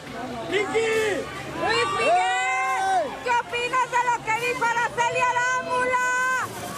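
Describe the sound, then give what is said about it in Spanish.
Hundreds of fans in a completely full arena at a concert scream and shout all at once, with high-pitched overlapping cries rising and falling in continuous waves, loud and dense for the whole stretch. “Por todos lados se escuchaban los gritos de cientos de personas que querían verlo y apapacharlo.”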